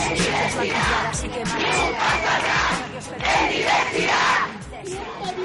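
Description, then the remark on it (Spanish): A large crowd at a feminist protest shouts together in loud, rhythmic bursts, many voices chanting and yelling in unison with brief swells and dips, dense throughout. “convocatorias feministas como esta.”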